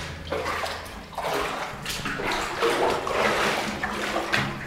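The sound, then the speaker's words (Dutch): Standing, clear drinking water in a tunnel splashes and sloshes in a steady run of uneven surges as someone wades through it step after step. The sound is fairly loud and continuous, with no voices. “Dit ehm, het water staat hier natuurlijk.”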